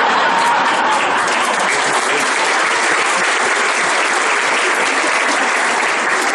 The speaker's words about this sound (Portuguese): eu entendi o seguinte: vocês aplaudiram a distância os 16 anos? 16 anos!